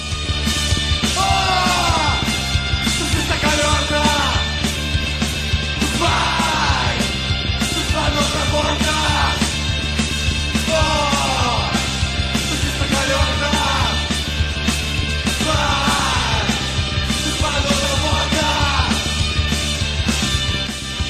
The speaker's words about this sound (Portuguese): você que está aí na sua casa ouvindo essa música, que é uma pérola do nosso punk rock nacional